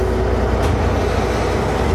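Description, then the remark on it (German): A deep, steady rumble as the second of a locomotive's four diesel engines starts up, with the engines started one after another, loud, with a brief hissing burst early on and no voices over it. “Das ist Motor 2.”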